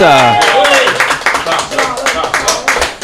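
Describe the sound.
A crowd bursts into loud, steady applause, dense rapid clapping filling the whole stretch, with a voice ringing out over it at the start.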